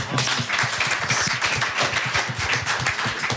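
A crowd applauds a performer who has just played a piece of music in a guessing game, many hands clapping in a dense, even patter that stays fairly loud for the whole stretch, with no voices on top.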